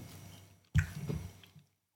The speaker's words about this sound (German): Du schmatzt hier schon wieder, ne? Ja, ich, ich, ich habe äußerst leckere Kinderschokolade gemein, hingestellt ne? bekommen.